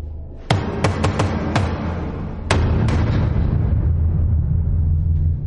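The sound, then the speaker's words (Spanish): Someone bangs on a door with about seven sharp, loud knocks in an uneven, code-like rhythm, a quick cluster first and then spaced hits, over a steady low rumble. “Golpea la puerta.”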